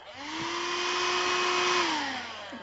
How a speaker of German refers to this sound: ein Gruß an den Staubsauger steht hier.